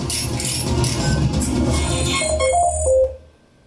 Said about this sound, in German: So. Das ist der Klingelton. Ich will aber nicht den ganzen Klingelton.